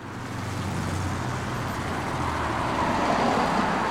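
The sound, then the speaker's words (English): Steady roadway noise from passing cars and heavier vehicles at the 28-143 intersection, which has a flashing yellow light and a high-speed traffic camera. It is a continuous rumbling wash of traffic that swells slightly louder toward the end, with no voices. “I'm here at the 28-143 intersection where the Department of Transportation has recently added a high-speed traffic camera to the intersection in an effort to catch those who blatantly disobey the flashing yellow light.”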